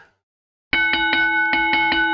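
After a moment of silence, a bright notification bell rings out, chiming in a quick series of repeated dings that sustain and overlap, loud with no voices.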